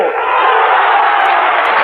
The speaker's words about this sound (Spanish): Bueno, pues ha tenido un, buen estreno como orador Santiago Carrillo a juzgar por la efusividad, por los aplausos de, de los aquí congregados.